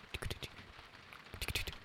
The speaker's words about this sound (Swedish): Nu börjar det regna lite mycket känner jag. Jag, jag, jag sänker um, sänker intaget av ljud och så pratar jag lite närmare micken för att göra. För det är ändå gött att höra regnet, eller hur? Regnet som slår mot husbilstaket.